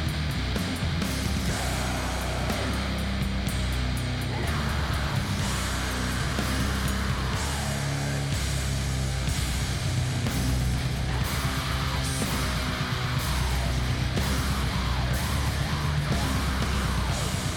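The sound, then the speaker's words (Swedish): A heavy sludge metal track from the label Argento Records, with thick, distorted guitars and pounding drums, a harsh screamed vocal howling over the dense, loud wall of sound throughout. “Det låter bara som doomig death metal för mig.”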